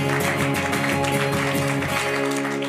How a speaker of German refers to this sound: Danke, Jesus. Amen. Der Applaus gebührt Jesus.